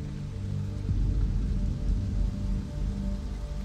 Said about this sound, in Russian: Промокло до нитки от нескончаемого дождя.